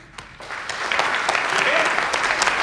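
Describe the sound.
A crowd breaks into applause, starting thin and quickly swelling into a dense, steady wash of clapping that holds loud through the end, with a few faint voices mixed in.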